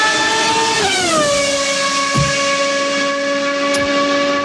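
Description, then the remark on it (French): A Formula 1 car's engine screams loudly, its pitch dropping sharply as it slows approaching the last corner, then settling into a steady, high, buzzing whine with no voices. “Le son sera toujours le même à l'approche du dernier virage, mais la voiture sera différente.”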